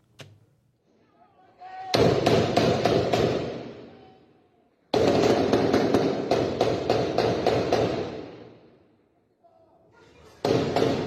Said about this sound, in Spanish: centro de salud de la zona norte, tirados al piso porque se escuchan las ráfagas intensas de alto calibre.